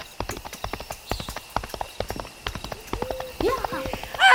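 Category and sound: animal, horses galloping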